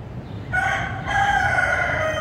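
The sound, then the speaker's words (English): A rooster at a neighboring building in San Francisco lets out a single long, strained crow that starts after a brief moment of low background rumble and holds steady and loud until the end. “And for a couple days, the rooster stopped crowing, and Adriel felt like maybe she'd been successful.”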